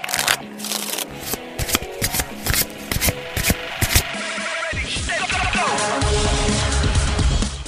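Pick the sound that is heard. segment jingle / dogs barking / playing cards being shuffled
playing cards being shuffled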